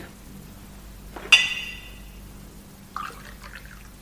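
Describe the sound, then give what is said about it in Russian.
A single bright glass clink rings out and fades, followed a moment later by a short, soft splash of water being poured into a glass over a quiet background hum. “Дайте мне воды.”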